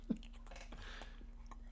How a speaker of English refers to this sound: just eat that bacon into the microphone